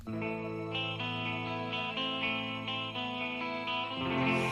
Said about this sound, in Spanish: Creo que esta canción que vamos a escuchar ahora pues nos ayudará también a, reflexionar luego sobre Sí, y mirar más allá del amor egoísta.